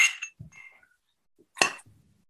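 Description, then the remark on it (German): Two bright glass clinks ring out in a toast, about a second and a half apart, each followed by a soft low knock, with quiet pauses between them. “Darauf müssen wir gleich nochmal anstoßen, zum Wohl.”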